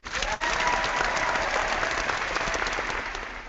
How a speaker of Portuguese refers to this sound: Aplausos para ela, então.